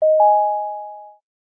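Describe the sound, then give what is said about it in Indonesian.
A single steady electronic ringing tone from an outgoing call placed on a mobile phone, holding for just over a second at moderate volume before cutting off into silence. No voices. “kita langsung telepon”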